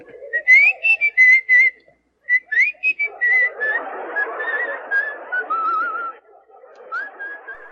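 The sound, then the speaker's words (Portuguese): A person whistles a tune in short melodic phrases with rising slides, fairly clear, while a rough noisy background swells through the middle before the whistling carries on alone. “que não sabe assobiar como este FDP que tá aí nesse fundo.”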